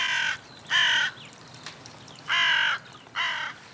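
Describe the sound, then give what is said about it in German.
Crows caw four times in two loose pairs, harsh, raspy calls, loud against a quiet garden background in the evening, with brief pauses between them, as they fly onto a power line to sleep side by side. “Die Krähen fliegen die Stromleitung an, um nebeneinander zu schlafen.”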